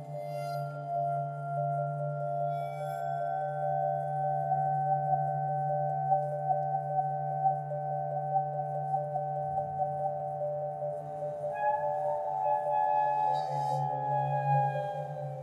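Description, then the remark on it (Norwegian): Sustained, droning tones layered in steady horizontal bands, with faint high scrapes and glassy flickers drifting in and out, forming a continuous abstract improvised texture with no voices. “Eh, det er også mange festivaler i Norge, sånn som All Airs og Blowout f.eks., som, som tar for seg den fritt improviserte mm. musikken, og som, som har et veldig stort og interessert publikum.”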